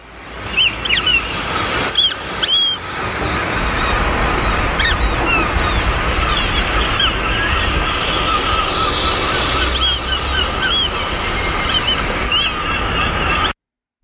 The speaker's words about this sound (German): Ich weiß nicht, ob man das hört. Wie gesagt, wir sind hier am Meer, die Wellen rauschen, irgendwo schreien sich ein paar Möwen an.